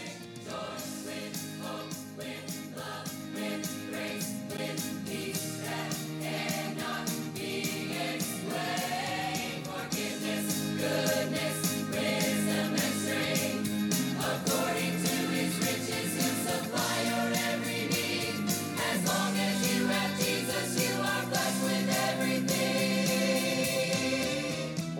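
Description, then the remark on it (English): A choir recording played back as a roughly 30-second clip during an 8 o'clock church service. The choir sings sustained, blended harmonies rising and falling in steady phrases. The sound stays full and fairly loud throughout, with no talking over it. “You'll get to enjoy about a 30 second clip this morning from our choir recording.”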